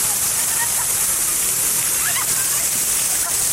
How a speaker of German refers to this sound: Hast du denn jetzt den Springbrunnen weggenommen oder was? Jetzt ist er aus. Weil der Springbrunnen reagiert auf Menschen, die auf ihn zukommen.